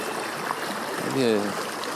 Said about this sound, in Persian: صدای آبی میآید به سمت رودخانه حرکت میکنیم